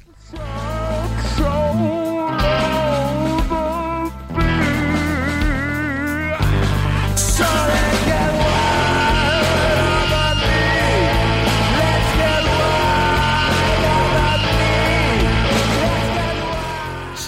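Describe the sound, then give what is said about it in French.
A loud, dense rock song plays continuously, with a full band and a wailing lead vocal line. A grinding, screechy guitar sits behind the mix throughout. “On va s'écouter le deuxième extrait de l'album que j'ai choisi, donc c'est …”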